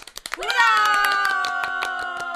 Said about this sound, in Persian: شماها هم دست به کف زدنتون خوب شده ها